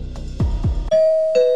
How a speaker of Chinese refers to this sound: 哎，我家门铃响了，你你先挂掉了，拜拜。